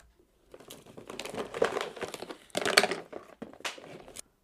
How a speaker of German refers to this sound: Natürlich, ich bin gleich wieder da. Der Verkäufer verschwindet kurz und man hört ihn in Kisten kramen.